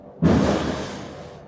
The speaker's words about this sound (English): Somebody dropped something.